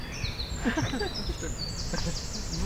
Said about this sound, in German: Das ist, der, Zaunkönig. Ein kleiner Vogel, ja, mit lauter Stimme. Ich sagte gerade, die Kleinen sind oft die lautesten.